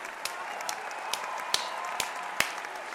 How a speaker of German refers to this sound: Also ich mache die Hand dann ganz steif und flach und klatsche beide gegeneinander. Ab und zu klatsche ich auch, dass die Hände ein bisschen schräger aufeinander sind, aber das macht keinen großen Unterschied.